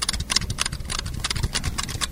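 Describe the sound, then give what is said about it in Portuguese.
Steady, fairly quick typing on a Cherry Red mechanical keyboard fitted with rubber dampeners, a run of soft clacking keystrokes with no one talking. “E esse é o Cherry Red com rubber.”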